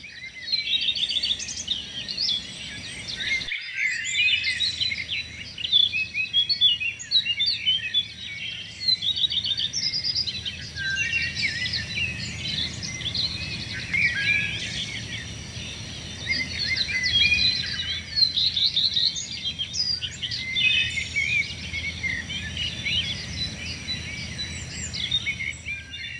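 Forest ambience full of dense, overlapping birdsong and chirping, with a steady insect hum beneath and a soft low rumble of wind throughout, no voices present.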